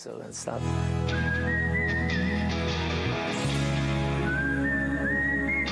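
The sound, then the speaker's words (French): A clear whistled melody rises and glides over a full rock band backing with steady drums and bass, the tune bright and prominent throughout. “j'arrivais avec une chanson complète et je la présente aux autres, genre allez écoutez ça, vous en pensez quoi Et là j'ai vraiment cru qu'ils allaient me dire non, arrête, avec une partie sifflée en plus.”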